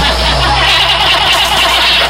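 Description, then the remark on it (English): A car engine churns as someone tries to start it, a loud, steady mechanical rumble lasting a couple of seconds with no voices. “Okay, well, how do I get my engine started?”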